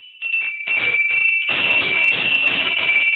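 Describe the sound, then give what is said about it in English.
Small Canadian open-face harness bells jingle in a dense, continuous shimmer, fairly loud, starting in short bursts and then ringing steadily as if shaken with motion. No voices. “these these are little Canadian open face bells.”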